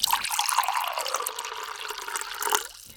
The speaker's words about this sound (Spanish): ¿Tomamos un poquito de agua